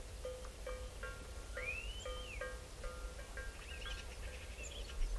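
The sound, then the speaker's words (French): Odd, varied bird calls from a group of starlings at a palombière (pigeon-hunting hide) by an untouched ravine: short clipped notes, a rising and falling whistled slur, and scattered chatter over a steady low outdoor rumble. “Ah, c'est les étourneaux qui font des bruits comme ça bizarres.”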